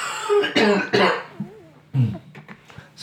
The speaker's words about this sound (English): still have some coughing going on.